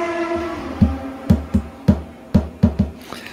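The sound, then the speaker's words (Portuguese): A loud motorcycle passes by outside, right in front of the speaker, sounding like a Formula 1 car. Its engine whine fades as a series of sharp, rhythmic revving bursts and low thumps take over, with no one speaking. “Eu parei porque tinha um barulho aí, parecia um carro de Fórmula 1, gente. Passou aqui na minha frente aqui.”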